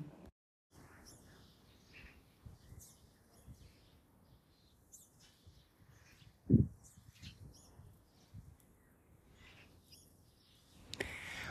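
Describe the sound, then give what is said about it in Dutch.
Outdoor garden ambience with scattered bird chirps and calls over a steady rush of wind, a low pigeon cooing now and then, and one brief louder thump midway. “Niks. Vogels en de wind. en een hele enthousiaste duif.”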